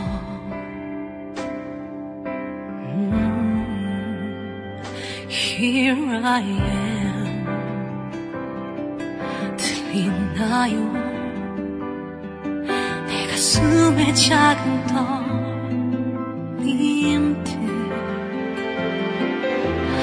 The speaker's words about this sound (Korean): 네, 신청곡 드라마 태양의 후예 OST였죠.